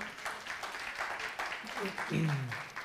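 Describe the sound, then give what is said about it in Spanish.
People at a service applauding to welcome a first-time visitor, a steady patter of many hands clapping at moderate volume, with a voice briefly rising over the clapping toward the end. “Bienvenida nuevamente, si podemos darle un aplauso, por favor.”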